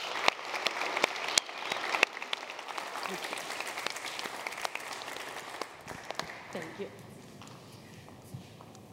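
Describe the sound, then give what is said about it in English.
A church audience applauds steadily to welcome a speaker, sharp claps blending into a dense wash that gradually thins and fades toward the end, with reverberant indoor acoustics. “will you please welcome Luke Emerson with a round of applause to our church”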